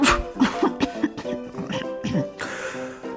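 coughing

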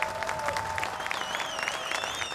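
applause

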